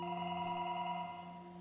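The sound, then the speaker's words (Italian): A telephone rings at three in the morning with a steady, sustained electronic tone made of several pure pitches, fairly quiet and continuous with no voices, fading slightly toward the end. “Il telefono continua a squillare.”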